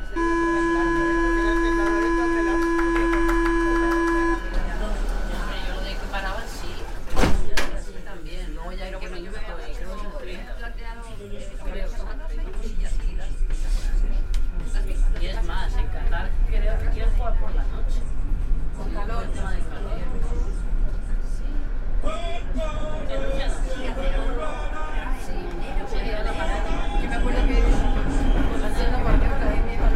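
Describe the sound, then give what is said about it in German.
Inside a Paris Metro train heading towards Place Saint-Sulpice: a steady electronic door tone sounds, then a sharp clunk as the doors shut, followed by a low rumble of the moving car and the murmur of many passengers talking. “Auf dem Weg zur Place Sulpice nehme ich die Metro.”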